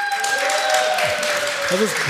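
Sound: audience applause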